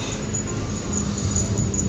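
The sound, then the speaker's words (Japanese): A small bell on the collar of a dog out on a walk jingles faintly in quick, recurring tinkles as the dog walks around, over a steady bed of low, noisy background rumble. “今犬がですね散歩してるんでしょうね首輪の鈴がチリチリチリチリ鳴りながら犬があの歩き回ってますけどね周りを”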